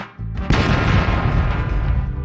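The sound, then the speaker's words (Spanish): A grenade left activated in a car explodes: a brief low thump, then a loud explosion that bursts out and keeps rumbling heavily for nearly two seconds, with no voices. “Dejaron una granada activada en su carro y que explota la madre esa y se murieron los tres. Y se escuchó así.”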